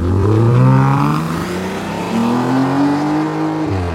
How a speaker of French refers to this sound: qui étaient les trois premières Mustang à Paris. C'était, mais alors, le son de cette bagnole. C'était somptueux. Immédiatement, on est allé sur l'autoroute de l'Ouest et on a fait une course dont j'ai encore honte, tellement on allait vite.